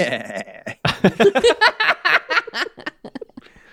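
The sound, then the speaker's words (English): A person imitates a goat, starting with a drawn-out nasal bleat and breaking into a quick, wavering run of stuttering bleats, like bleating mixed with laughter, fairly loud. “So you can understand please? English, but you can only speak goat.”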